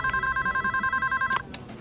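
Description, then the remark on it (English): A telephone ringing over the line on a call to the Ocean Pups customer service line, a steady electronic trill with bright stacked tones and a rapid pulsing rhythm, cut off abruptly near the end by a click. “he he calls the Ocean Pup's customer service line because uh, apparently they have a full time customer service rep”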